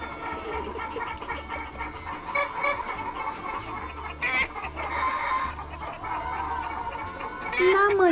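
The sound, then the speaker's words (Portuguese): Several hens cluck softly and continuously in a low, murmuring chorus, with a sharper rising squawk breaking through near the end. “Naquela noite, as galinhas arquitetaram um plano muito especial. Elas cochicharam.”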